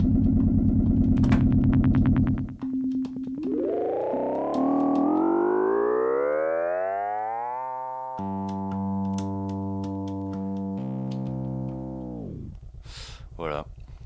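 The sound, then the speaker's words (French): A small keyboard synth's buzzy electronic tone with a delay effect swoops steadily upward, then settles into a few loud, sustained stepped notes before cutting off, giving a whirring, aircraft-like feel. “ça, ça fait des sons un peu plus euh, aéronautiques, quoi.”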